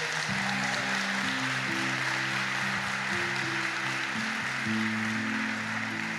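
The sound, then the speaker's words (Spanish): Steady, dense audience applause given to the Lord during a sermon fills the whole stretch, a constant wash of clapping with sustained low keyboard chords shifting underneath; no one speaks. “¿Cuántos le damos un aplauso al Señor por eso?”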